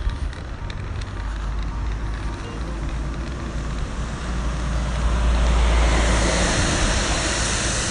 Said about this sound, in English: That's a wagon.